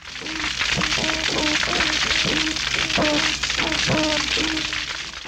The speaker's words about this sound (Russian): Этот чудесный звук издает рыба. Это рыба-жаба. И она так предупреждает других самцов, чтобы они не приближались и не занимали ее территорию.